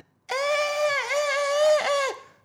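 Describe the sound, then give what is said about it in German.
A person imitates a goat's bleat with one sustained, loud, nasal cry lasting about two seconds, wavering in pitch with a couple of dips before cutting off. “Ihr, ihr kennt die Ziege, die überall reingeschnitten wird in diese Dubstep-Songs. Ja, genau. Ganz genau dasselbe Geräusch.”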